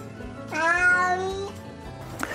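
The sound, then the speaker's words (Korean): A cat lets out one long, drawn-out yowl lasting about a second, fairly loud, with another cry just starting as the sound ends; no one speaks. It is the grumbling yowl a cat makes while wandering alone. “와옹, 와옹, 와옹. 이런 식으로 고양이가 혼자 배회하면서 내는 소리입니다.”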